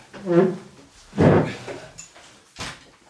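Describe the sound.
A chair is carried back into an office and set down: a heavy wooden clunk followed by a lighter knock, after a brief murmur of voice at the start.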